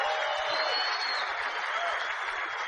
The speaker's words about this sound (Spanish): al cual pido un tremendo aplauso para el trabajo que ha hecho.